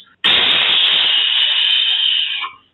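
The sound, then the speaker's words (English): A voice imitates the air brakes of an 18-wheeler truck with a loud, sustained hissing burst lasting over two seconds, steady and breathy, then cutting off abruptly. “And even that in my imagination, like, you know, when an 18 wheeler hits the brakes and it goes,”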